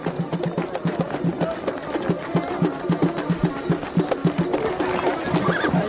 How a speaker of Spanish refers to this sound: El hombre al que pagaron llega en su caballo y saluda a amable alemán.